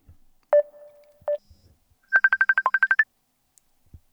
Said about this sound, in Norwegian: Nå ringer vi dagens gjest.